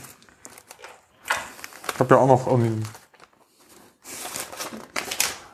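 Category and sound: household object, rustling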